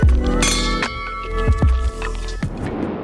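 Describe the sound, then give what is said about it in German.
Raised glasses clink together in a toast, several bright ringing chimes with sustained tones that hang and fade, followed by a softer rustle toward the end. “Cheers.”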